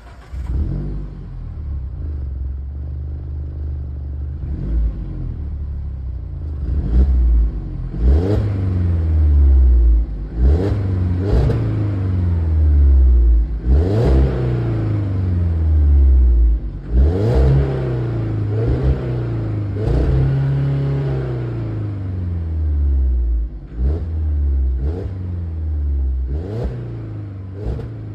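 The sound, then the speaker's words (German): A Mazda3 car engine revs up and down over and over against a soft rev limiter, its pitch climbing and falling in steady, thin-sounding bursts for nearly half a minute, with no talking. “dann kommen wir jetzt zum Sound des heutigen Autos”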